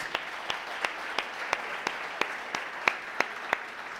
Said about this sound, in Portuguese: Vamos dar um aplauso pela vida desses irmãos.